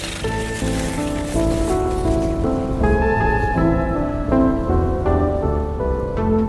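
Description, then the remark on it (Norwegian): A storm with heavy rain makes a steady, dense rushing hiss, with sustained tonal music notes drifting and shifting in pitch over it. No one speaks. “De vandrer i retning Sverige og inn i uværet.”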